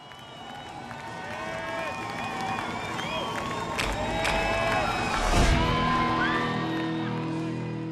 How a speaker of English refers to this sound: And a round of applause to James Kingsley from eLearning Brothers for this episode.